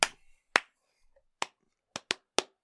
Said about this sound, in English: Yeah, this is all the different kinds of claps.